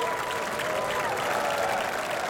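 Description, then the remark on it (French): Steady, dense applause from an audience for dancers after their dance performance, a continuous wash of many hands clapping at an even loudness throughout, with a faint tonal hum running beneath. “Applaudissez-les bien fort”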